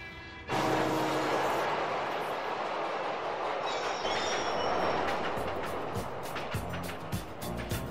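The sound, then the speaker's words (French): A New York City subway train roars loudly and continuously after a sudden start, its wheels clattering and faintly squealing, with a dense city traffic rumble of cars underneath. “Dans la scène d'ouverture du film, on nous présente tout d'abord le lieu de l'action, donc New York, avec les bruits de la ville, du métro et des voitures.”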